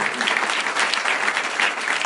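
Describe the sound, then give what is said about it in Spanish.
An audience applauds steadily for the speaker's sponsorship line, José Bobadilla, a dense wash of many hands clapping at once, fairly loud and sustained for the whole stretch with no voices standing out. “Mi línea auspicio, José Bobadilla, un aplauso.”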